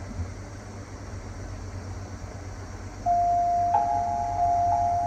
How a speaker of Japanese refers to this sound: 今この、なんていうのちょっと鐘みたいな、こう、公園で鳴ってるような、このね、公園で5時ですよ、みたいな、イメージの、今音になってますけど